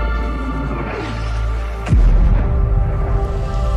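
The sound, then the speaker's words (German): Air raid sirens wail over Kiev, the capital of Ukraine, signalling that the city is under attack, in steady, sustained tones with a sliding pitch sweep, and a sudden deep boom lands partway through, leaving a loud rumbling wash behind it. “The sirens are sounding to indicate that the city of Kiev, the capital of Ukraine, is under attack.”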